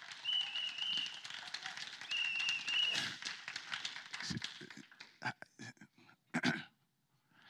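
A crowd claps in a dense, rapid patter while a shrill whistle sounds in two long blasts; the clapping thins to a few scattered claps and fades near the end.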